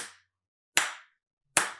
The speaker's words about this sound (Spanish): Si yo aplaudo, eso es un pulso. Y si yo me quedo aplaudiendo,